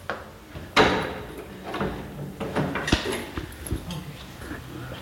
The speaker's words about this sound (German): öffnet die Tür zu einem kleinen Apartment direkt unterm Dach.